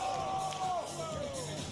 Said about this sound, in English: It's honestly funny just hearing the people in the crowd's reaction. Like that trick right there is wild.